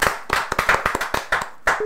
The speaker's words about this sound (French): Acclamons pour le Seigneur Jésus.